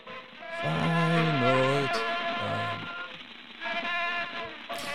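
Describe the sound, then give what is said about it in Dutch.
An original 1894 phonograph recording plays, with a wavering, voice-like tone sliding between pitches over a steady crackling hiss of surface noise, moderately loud and continuous throughout. “Decibel, original 1894 fonograaf recordings, te vinden op YouTube.”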